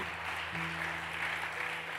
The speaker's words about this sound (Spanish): Dele un aplauso fuerte.